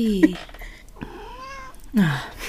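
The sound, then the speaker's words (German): A cat yowls insistently in three drawn-out, wavering meows, each rising then falling, fairly loud in the quiet, demanding to be let into the room. “die Katze verlangt Einlass in den Raum. Oh, Katze. Sie schreit.”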